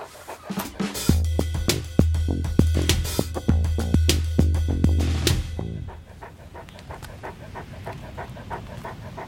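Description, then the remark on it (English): A dog pants while out walking, in quick, steady, breathy bursts, loud and rhythmic, with a low droning hum under the first half before the panting softens and grows fainter toward the end. “I'll just walk on the other side of you. From the dog.”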